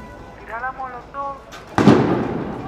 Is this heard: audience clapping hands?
no